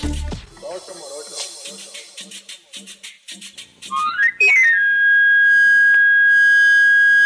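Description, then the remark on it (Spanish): A voice talks for a few seconds, then a knife sharpener's camarillo, a wooden flute of medieval origin, runs up a quick scale and holds a loud, steady high note to the end, announcing his knife-sharpening service in the streets of the capital city in the early afternoon. “Ese silbido inconfundible es producido por un camarillo, una flauta de madera de origen medieval que basta como anuncio sobre su servicio para afilar cuchillos”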